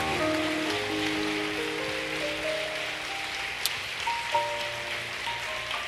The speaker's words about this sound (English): Come on, let's give our veterans another big clap and a praise.